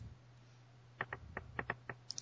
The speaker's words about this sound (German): Man hört ihn ja tippen, das ist ja hervorragend.